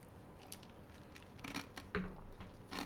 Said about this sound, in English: as I crunch on ice